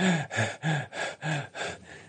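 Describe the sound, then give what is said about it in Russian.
A voice imitates heavy, out-of-breath panting: about seven quick, breathy huffs in a steady rhythm, fairly loud, some with a faint voiced edge. “Он выходит такой, запыхавшийся, заходит за шторку и стоит возле входа на сцену.”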